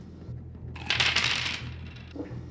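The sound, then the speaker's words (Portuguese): A damage die is rolled in a tabletop role-playing game, clattering and rattling briefly across a hard surface in a bright burst of tumbling clicks lasting under a second, then a faint final tap as it settles on a one. “Então, ok, gasta os pontos de magia necessário e joga um dado de dano.”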